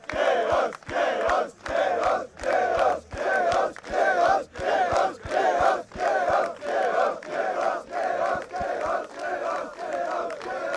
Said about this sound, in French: Eh les gars, on fait du bruit pour Chaos ensemble Chaos Chaos Chaos